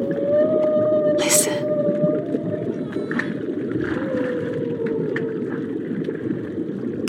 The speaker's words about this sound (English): Can you hear that? Whale song. A parade of life, great and small, are riding the East Australian current with you.